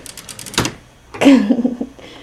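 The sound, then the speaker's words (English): Clatter of objects being shuffled around in a utility drawer, with a few quick clicks followed by a sharp rattle and a longer stretch of clunking and scraping, like rummaging through a drawer. “Anyways, this is my utility ish drawer.”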